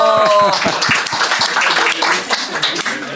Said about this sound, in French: Merci, oui Applaudissez-le